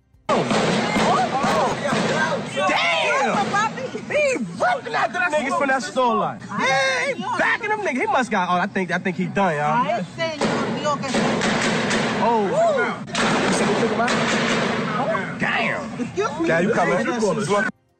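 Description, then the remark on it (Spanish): Frantic, high-pitched shouting and screaming from a panicked crowd runs nonstop, with sharp bangs of intense gunfire cracking through the chaotic voices during a shooting by attackers at a store in New Jersey. “Así se escuchaba el intenso tiroteo y el pánico, el miedo de la gente, y cómo no.”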